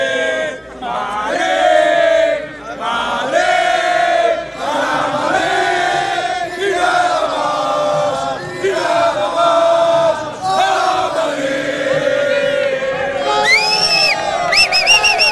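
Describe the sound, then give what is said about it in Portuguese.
A large crowd of Real Madrid football fans chants loudly in rhythmic, sustained bursts outside Gareth Bale's corner bar Elevens, opposite the castle in Wales, voices rising and falling together with occasional shouts and whistles, continuous throughout. “A gente entrou ontem, agora não dá para entrar porque tem muito torcedor aí”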